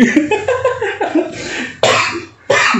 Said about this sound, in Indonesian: hmm, batuk loh